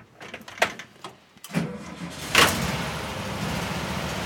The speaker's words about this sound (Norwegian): En veldig god motorlyd. Ja, dette oser det kvalitet av. Og det er jo en minnerik lyd, da, ikke sant. Vi har den jo i bobla også. Men du får en litt annen klang når du sitter såpass langt fra den og du har varerommet bak, så det er jo musikk.